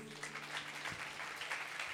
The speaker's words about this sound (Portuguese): Aleluia! A salva de palmas, Senhor Jesus.